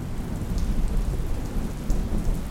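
Steady rain pours down with a deep, continuous rumble of thunder rolling underneath, dense and loud throughout without any voices.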